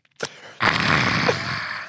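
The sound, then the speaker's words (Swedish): A short sip-like click, then a long, breathy, voiced exhale of contentment lasting over a second, fairly loud. A person imitates the satisfied 'aah' a man on a train made after each sip of coffee, no words spoken. “Hur får man dricka sitt kaffe? Ja, jag satt bredvid en kille på tåget som gjorde, gjorde det här. Tar en klunk och, bara...”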